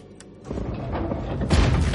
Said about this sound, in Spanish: La gruesa puerta se abre lentamente, empuja una de las hojas y mira dentro.